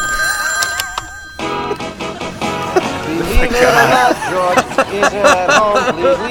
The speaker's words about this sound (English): Hey, I got another call coming in. I gotta let the machine get it.